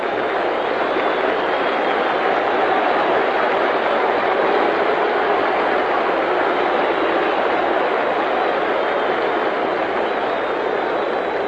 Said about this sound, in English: And Johnny Vander Meer pitched himself out of that one. And so for the American League in the first half of the sixth inning. No runs, one hit. Listen to the hand for Vander Meer.